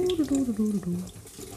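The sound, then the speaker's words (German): Water pours steadily into a sink with a soft, continuous splashing while a voice speaks over it; rinse water is being slowly poured off rice from a bowl held in one hand, keeping the rice inside. “ich halte die Schüssel mit einer Hand, du langsam das Wasser ausgießen so, dass der Reis drinnen bleibt.”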